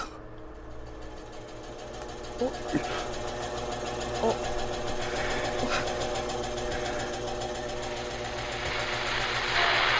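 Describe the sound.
A steady mechanical whirring drones throughout as a secured message is transmitted, the security processing causing the noise; dense and buzzing like a running motor, with faint hiss rising toward the end; a voice briefly exclaims over it.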